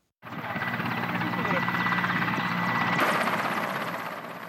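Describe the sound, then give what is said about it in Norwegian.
A Ukrainian Mi-8 helicopter's heavy rotor chop and engine whine fill the air, steady, as it descends to land near the front line in Ukraine, with a faint murmur of voices underneath. “Et ukrainsk Mi-8-helikopter går inn for landing ikke langt fra den nesten 500 km lange frontlinjen mellom de prorusske separatistene og de ukrainske regjeringsstyrkene.”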